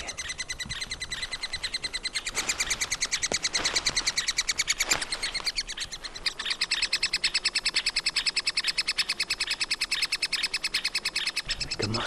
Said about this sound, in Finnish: Nyt se varmaan alkaa kuulua tuonne mikrofonipelityksellä teillekin. Siinä on pieni kääpä ja käävän alla on pieni kolo. Ja sieltä kolosta kuuluu kiikitystä ja etäisyys, korkeus on kolme metriä.